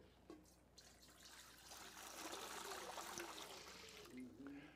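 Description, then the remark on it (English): Rushing water swells up after a brief knock and pours steadily in a dense, hissing wash, like a flush or a tap at full flow, with no voices over it. “They like the sound of rushing water, this sound here.”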